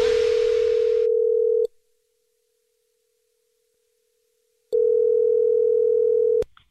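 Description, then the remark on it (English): A telephone dial tone before a Jubal prank phone call sounds twice, each a steady, loud, single-pitched hum lasting over a second, separated by about three seconds of silence, with no voices present. “it's another Jubal phone prank.”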